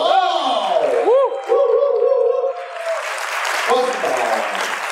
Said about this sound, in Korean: 자, 이 모든 분들 대박나시라고 감사의 박수 한번 부탁드리겠습니다.